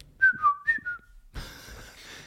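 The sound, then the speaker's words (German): Someone whistles a short, bright melody of a few quick notes, imitating a card payment jingle, then it breaks off into a burst of breathy noise. “Da kommt immer so eine Melodie, wenn man zahlt.”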